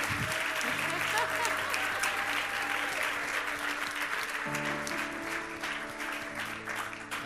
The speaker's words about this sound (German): Wir können einen herzlichen Applaus geben.